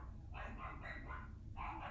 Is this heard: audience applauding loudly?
no